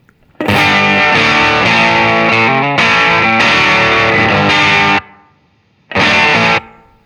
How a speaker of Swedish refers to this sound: Okej, okay, vi kör sista ljudet här som heter Fuzzy Overdrive. Jag har för mig att den här gillade jag om jag inte minns helt fel.